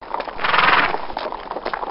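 Horse hooves clip-clop in a steady, repeated rhythm as riders follow a track along a river, moderately loud, with a muffled, band-limited quality and no voices.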